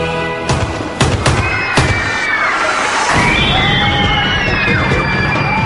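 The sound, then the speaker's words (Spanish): Four sharp gunshots, fired at Pope John Paul II at close range in St. Peter's Square at the Vatican at 5:15 in the afternoon, crack out in quick, uneven succession over a noisy crowd, followed by rising wails of sirens or whistles and continuing commotion. “A las 5 y 15 de la tarde se oyeron unos disparos.”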